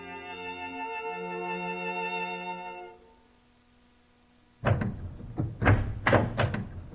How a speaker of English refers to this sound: Who is out there, banging and pounding at my door on a night like this?